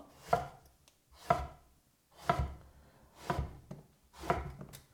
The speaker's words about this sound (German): So, und dann schneiden wir, jetzt haben wir ja quasi schon grob die Form vorgegeben, daraus Würfel.